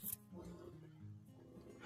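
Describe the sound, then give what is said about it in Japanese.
A 13-year-old pet dog whimpers and gives small yips in a continuous, wavering, nasal cry lasting a couple of seconds, at moderate volume, with a brief sharp sound at the very start. “で、このワンちゃんはね、えーはいはい、うちの、えー、かわいいかわいいナ々ちゃんですね。”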